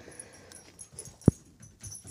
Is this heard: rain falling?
no